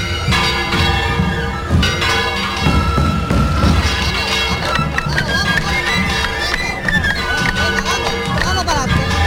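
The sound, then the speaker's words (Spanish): A school of tabor drummers of all ages, from small children to the oldest, comes out of Calle Mover in a procession at the Rocío pilgrimage, playing a loud, continuous rolling rhythm with many drums beating together, while high, sustained piping tones weave over the top and crowd noise murmurs underneath. “Y, fíjense ahora mismo una escuela de tamborileros desde los más pequeños hasta los más mayores que están saliendo de la calle Mover.”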